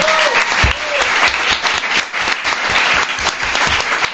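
A crowd claps steadily for several seconds, dense and continuous applause filling the room with a bright, crackling wash of many hands, with a faint whistle near the start.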